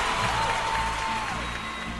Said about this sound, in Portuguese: aplausos, aplausos